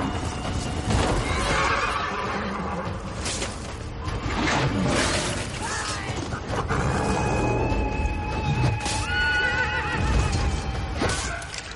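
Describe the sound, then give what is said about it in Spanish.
Horses neigh and whinny repeatedly in a loud, chaotic battle din as Spartan soldiers holding their position wound the horses and make them fall, shrill high-pitched cries rising over a constant dense roar with clattering hooves and crashes throughout; no one speaks. “Los espartanos mantienen la posición, hiriendo a los caballos haciéndoles caer.”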